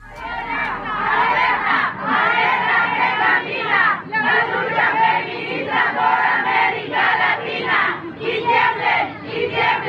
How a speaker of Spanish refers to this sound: Pero eso no importó para que decenas de miles de mujeres, de forma pacífica, se concentraron ayer por la noche en el Zócalo para gritar un mensaje claro.